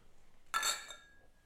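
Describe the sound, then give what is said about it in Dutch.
Glasses are raised and clink together once in a toast, a bright ring that lingers briefly and fades away; no voices are heard. “En dat is ons glas heffen. En dan zeggen wij... Klinken.”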